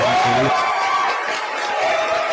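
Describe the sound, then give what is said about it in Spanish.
An audience applauds and cheers to welcome guest Enrique Ortega, a dense, steady roar of clapping that stays loud for just over two seconds, with a brief vocal whoop at the very start. “Vamos a darle un aplauso muy cariñoso a Enrique Ortega, mi gente.”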